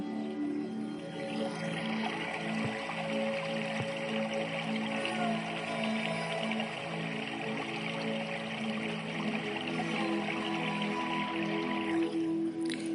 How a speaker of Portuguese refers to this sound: Conecte-se com o som da água, com o fluir das águas.